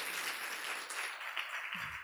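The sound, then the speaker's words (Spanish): A crowd applauds steadily for the staff who prepared a breakfast, a dense wash of many hands clapping at an even loudness throughout, with a brief low voice creeping in near the end. “Dale un fuerte, fuerte, fuerte aplauso.”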